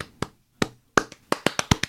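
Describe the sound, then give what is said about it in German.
A short burst of applause: around nine sharp hand claps, loosely spaced at first and then quicker and more regular toward the end, with no voices. “Also erstmal großen Applaus, ne?”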